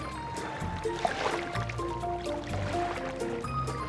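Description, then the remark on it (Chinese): Sea waves crash and wash onto the shore in a steady, rushing swell of water, with a soft melodic tune playing underneath and no voices. “在海边休息的时候呢，他留意到了哗啦啪啦的海浪声”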